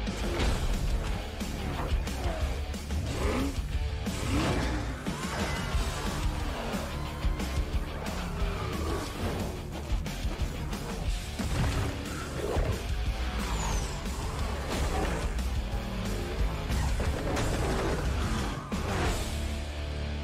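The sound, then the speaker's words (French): A trailer for added content to a racing video game released about three years earlier, bringing Hot Wheels cars: a loud, nonstop action montage of racing cars roaring past, punctuated by repeated crashes, impacts and fast whooshes, all densely layered with no talking throughout. “Voilà une petite bande-annonce vraiment qui est sans prétention pour un jeu qui est sorti il y a des années maintenant.”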